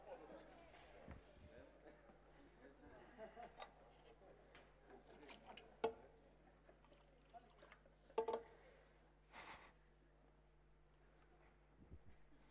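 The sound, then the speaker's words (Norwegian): Water is poured into a glass during a sermon, a soft trickling stretch punctuated by a few sharp clinks and knocks, with faint murmur in the background. “Kan jeg ta noe av denne vannet her?”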